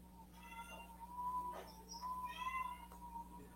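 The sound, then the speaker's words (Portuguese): A cat meows twice, each cry drawn out and tonal, fairly quiet, over a steady low background hum with no one talking. “Eu queria fazer um gancho, tem um gatinho aí agora.”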